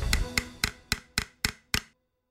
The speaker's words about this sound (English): They might have growled, hissed, clicked, or even bill clacked, which means opening and closing their beaks to make a clattering sound.